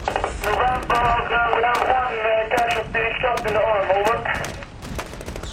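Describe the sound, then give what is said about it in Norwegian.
Crackling military radio transmission as a patrol makes contact with its main camp in Maimane: a thin, band-limited voice comes through static, broken by sharp clicks and pops, steady for about five seconds. “Patruljen får kontakt med hovedleiren i Maimane. Her hører du sambandslyden.”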